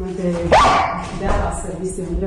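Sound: dog barking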